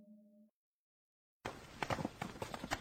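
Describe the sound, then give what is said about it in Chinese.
A brief steady tone and a pause give way to a run of footsteps of someone following behind a walking man, evenly paced, moderately loud, with sharp repeated steps over a low background hiss. “那脚步声不远不近，不轻不重。”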